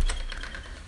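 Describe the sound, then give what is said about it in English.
Doors rattle in strong wind, a few quick knocking clicks over a low rumble of gusting air, moderately loud, with no voices. “but it's super windy. Those are my doors.”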